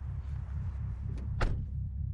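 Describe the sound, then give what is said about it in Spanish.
A car door shuts with a single solid thunk as a woman gets into the car, preceded by a faint click, over a steady low rumble of an idling engine. No voices. “Monta en el coche.”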